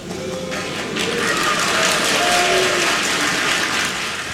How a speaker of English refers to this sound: So you hear people booing uh, throughout her short speech. They uh, actually um, did like the tomahawk chop in the audience, and people were making, you know, like Native American warrior sounds and ridiculing her.